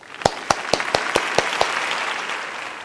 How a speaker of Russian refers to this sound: И это впервые, когда Нобелевка вручается за открытие, связанное с антропогенезом. Что тут сказать? Аплодисменты!